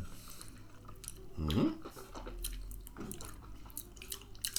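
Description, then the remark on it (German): A big, soft sip of whiskey after a toast, with a brief slurp and wet mouth sounds, followed by faint swallowing and smacking noises; no talking, just quiet drinking sounds over a low background. “Und wenn er schon so lecker riecht, dann nehmen wir doch mal einen ordentlichen Schluck.”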